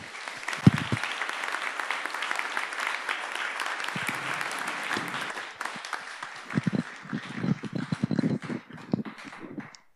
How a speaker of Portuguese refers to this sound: Amém, meus queridos. Vamos aplaudir o Deus da salvação. Amém.